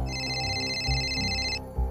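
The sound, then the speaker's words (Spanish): A telephone rings with a new call, coming two hours after the previous one. It gives a steady, high electronic trill that holds for about a second and a half and then cuts off, over a low rumbling background. “Luego de dos horas un nuevo llamado.”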